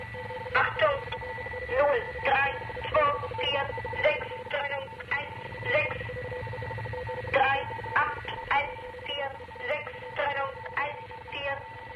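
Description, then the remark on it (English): A ringing gong-like tone from an East German numbers station, transmitted from Zeesen, strikes again and again in an uneven rhythm over a steady hiss of shortwave static, with a muffled, seemingly female voice chanting numbers in German underneath. “Along with this gong sound, a seemingly female voice chanted numbers in German.”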